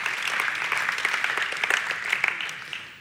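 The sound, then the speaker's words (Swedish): Steady audience applause, a dense wash of many hands clapping at once with scattered sharper claps popping out, fairly loud and even across the whole stretch, with no talking over it. “Ja, ge dig själv en applåd.”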